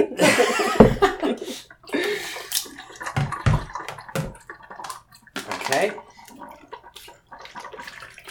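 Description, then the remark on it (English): Water splashes and gurgles as liquid is poured to refill a container after it was agitated and poured out, mixed with soft laughter and brief bits of talk. “And then fill it up again.”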